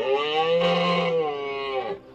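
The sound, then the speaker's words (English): A single loud, sustained animal roar with a deep, bellowing tone, rich and harmonic, holding steady for about two seconds before cutting off. No voices, powerful. “Tales were now being told of a loud, bellowing roar that could be heard for miles around.”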